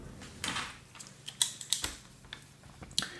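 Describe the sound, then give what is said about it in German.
Someone types something onto a list on a computer keyboard: a short, irregular run of soft, crisp key clicks with uneven pauses between strokes, and no talking. “Warte, ich muss was auf meine Liste schreiben.”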